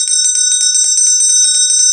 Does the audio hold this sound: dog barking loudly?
no